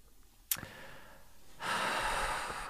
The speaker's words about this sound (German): Ich komme gerade in schwere Schnaufen, nicht?